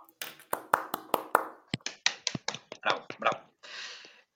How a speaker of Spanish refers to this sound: aplauso